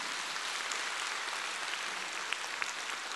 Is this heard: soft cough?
no